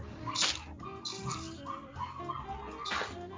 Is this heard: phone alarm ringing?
no